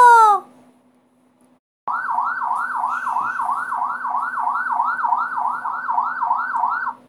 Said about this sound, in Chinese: 随着警车的声音开走，总裁就这么的被带回了警察局